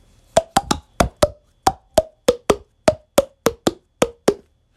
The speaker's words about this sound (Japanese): 自分の手を、こう、すぼめて、両手でこう、ポンポンポンってやることで空気が出るんですよ。それを口の中に、こう、入れることで音が出るって。で、口の大きさを変えれば、音が変わるって。